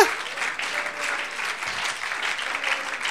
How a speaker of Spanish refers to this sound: Los Ujieres son los que aplauden ahorita, ¿eh?